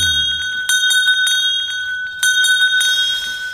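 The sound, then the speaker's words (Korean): A bright bell rings out repeatedly with clear, sustained metallic tones, struck again at a steady pace so the ringing overlaps and lingers. Fairly loud, with no voices. “종소리 한 번 더 듣고 갈까요?”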